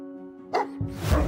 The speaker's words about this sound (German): Moni beißt und bellt Besucher laut an.